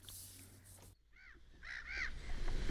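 Several harsh, cawing bird calls on a summer morning come in quick succession after a brief burst of noise, ringing out over a quiet outdoor background with no one talking.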